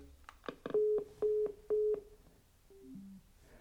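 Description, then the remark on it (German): A telephone busy tone after hanging up a call taken on the large Magenta Speaker: a short clatter, then three steady, evenly spaced beeps, followed by a quick descending three-note chime. It is clear, with no talking. “Wenn ich jetzt auflege,”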